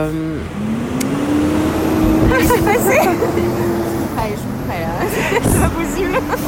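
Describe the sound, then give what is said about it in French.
A heavy SG Énergie truck rumbles past, its steady engine drone swelling and holding for several seconds while a person talks over it. “Non, c'était le camion SG Énergie, merci.”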